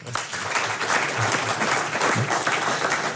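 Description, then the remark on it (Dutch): Sustained applause from a large audience fills a packed hall, a dense, steady roar of many hands clapping at once for the full few seconds, with no voices standing out. “En u hoort het, het is een helemaal volle zaal.”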